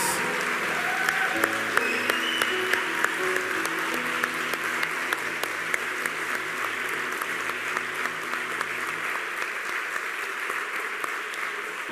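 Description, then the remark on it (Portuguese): A church audience applauds volunteers steadily for several seconds, dense overlapping claps, with faint sustained tones beneath the clapping early on. “Eu queria que de verdade, que como igreja, a gente pudesse aplaudir esses voluntários que estão fazendo um trabalho incrível lá fora.”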